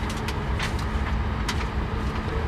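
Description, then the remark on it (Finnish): A steady rumble of an airliner's engine number two starting up, with a low constant hum and a few brief airy hisses on top. No voices. “Starting engine number two.”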